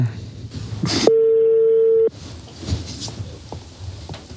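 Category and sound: signal or alarm, telephone dialing a call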